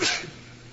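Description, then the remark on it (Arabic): A single short, sharp sneeze bursts out loudly at the start, then fades quickly into a low background hum with no talking. “رحمك الله”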